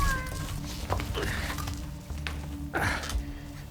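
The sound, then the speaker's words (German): A cat meows a few times in short, nasal cries over a steady low rumbling background, moderately loud. “Die Katze muss an eine Geheimvorrichtung gekommen sein.”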